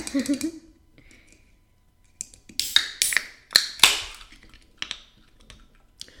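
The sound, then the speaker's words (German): Sharp metallic clicks and short fizzy hisses, fairly loud, as beer cans are cracked open, with a few lighter taps afterward and a brief vocal sound at the start. “Machen wir mal auf, oder?”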